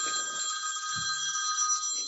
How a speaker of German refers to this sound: Krieg gerade einen Anruf rein. Telefon.